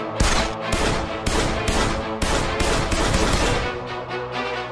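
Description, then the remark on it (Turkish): Rapid bursts of gunfire ring out loud, sharp repeated shots overlapping with ringing echoes, continuing steadily for several seconds with no voices. “Çocuklar, ah, çocuklar vaziyet alın lan niye sıkıyor bu şimdi?”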